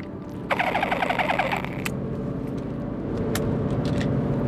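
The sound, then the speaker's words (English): A quick swig from a water bottle without its straw inside, lifted up to drink: about a second of rapid, bubbly glugging over a steady low engine-like rumble, followed by a few faint clicks. “I suppose this water bottle's making that sound because it doesn't have the straw inside, so I gotta lift it up and swig.”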